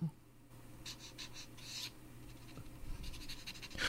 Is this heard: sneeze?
no